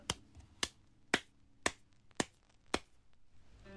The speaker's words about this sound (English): Jaffar, though, simply nodded and gave a small clap.